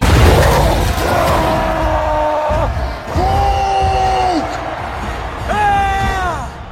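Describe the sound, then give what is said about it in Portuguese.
A man yells three times in long, drawn-out shouts, each lasting about a second, loud over a constant noisy background; it is the Hulk shouting in a Thor movie scene. “Cara gritando que ele idiota”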